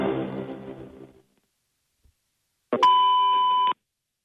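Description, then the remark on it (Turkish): A single steady electronic beep, like an answering machine's record tone, holds one flat pitch for about a second after a fading sound and a short silence, then cuts off abruptly. It is the signal tone of a Türk Telekom message-recording line, after which callers leave a message within 45 seconds. “Sinyal sesinin ardından 45 saniye içinde sözümüzü bırakıp lütfen biri tuşlayın.”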